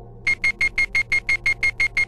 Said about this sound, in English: Asleep in his cabin, McKenna was awakened by a beeping sound.